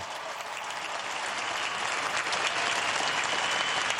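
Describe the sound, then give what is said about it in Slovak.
Loud, sustained applause from a large crowd at a gathering, given as thanks to Jesus: a dense steady wash of clapping that holds level for the full four seconds with no talking over it. “Poďakujme Ježišovi ďalším silným potleskom.”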